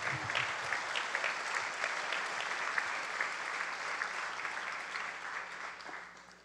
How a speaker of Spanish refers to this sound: Dele un aplauso al Señor esta mañana.